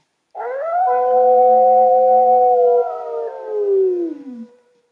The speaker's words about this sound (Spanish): De repente, a lo lejos, queridos niños, se escuchó un aullido.